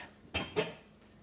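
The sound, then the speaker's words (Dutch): Two quick metallic clanks ring out as a potato masher knocks against a pot while mashing puree, then the clatter fades into quiet room noise. “Alleen ik doe hem wel altijd even voor stampen. Dus ik pak even een stamper.”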